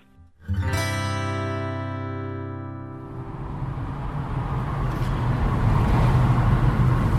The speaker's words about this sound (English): So we've decided to take the opportunity to hop in the car and go out to Rostellan, past Midleton anyway, to see if we can find the spot where a painting